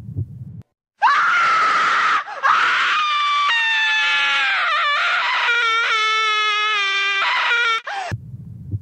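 A loud, shrill scream rings out in a hallway for about seven seconds, piercing and sustained with a wavering pitch, close and intense, with a brief break before it rises again, preceded and followed by low rumbling.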